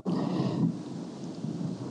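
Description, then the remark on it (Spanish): A deep, loud rumble of thunder rolls continuously for a couple of seconds, strongest at the start before easing slightly and grumbling on, as rain is about to fall. No one speaks. “Va, a llover. va a eh, llover.”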